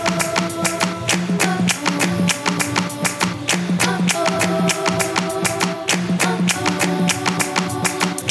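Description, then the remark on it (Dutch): A 2000s R&B pop track plays loud and continuous: a steady, bouncy beat of crisp percussive hits over held bass and melodic tones, with no talking over it. “Dat is … met ….”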